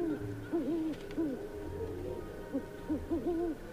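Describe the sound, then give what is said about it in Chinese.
A large snow-white owl hoots in short, low, wavering calls, about eight of them in uneven clusters, over a faint steady background hum with no voices. “果然，那只大大的雪白的猫头鹰就站在屋顶最高处。”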